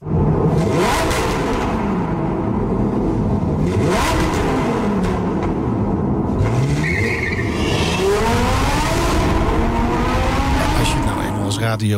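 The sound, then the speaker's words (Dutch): A car engine revs hard in a tunnel, its pitch sweeping up and down repeatedly as it accelerates, loud and echoing, with brief tire squeals. “We gaan naar de tunnels. We zijn er dol op bij de Nationale Autoshow.”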